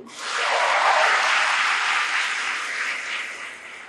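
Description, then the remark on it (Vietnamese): An audience at a Buddhist gathering claps steadily for several seconds after chanting the Buddha's name, a dense crackling wash of many hands that swells early, holds, then gradually thins and fades toward the end. “nhờ các bạn niệm phật á cho tràng pháo tay đi”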